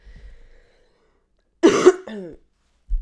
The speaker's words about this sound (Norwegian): Jeg må bare hoste. Det klør i halsen.